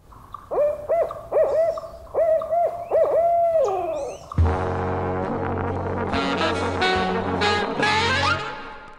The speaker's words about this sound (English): Based on the region, folks think this is probably the barred owl. It hoots in about eight syllables, and it sounds like, and I quote, Who cooks for you? Who cooks for you?